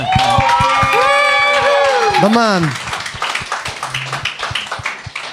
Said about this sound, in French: on l'applaudit